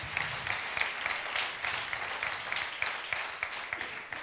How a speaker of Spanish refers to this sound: ¿Cuántos pueden decir amén y darle un fuerte aplauso a su Dios?